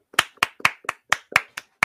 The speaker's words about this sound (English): applaud you. I'm standing. Uh, if you if you're watching it, if you're listening at a later date, I stood and applauded for Cora Cora Jade.